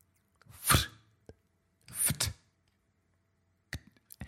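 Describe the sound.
A voice mimics a bottle being opened with two breathy, hissing bursts about a second apart, followed by a few quick clicking mouth sounds, fairly loud with no other sounds.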